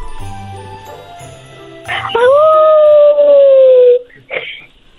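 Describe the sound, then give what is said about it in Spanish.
A person imitates a wolf with one long, loud, sustained howl that rises and then slowly falls in pitch, lasting about two seconds before stopping abruptly, followed by a brief breath. “Ah, ¿Puedes, ¿Puedes hacer el ruido de un lobo?”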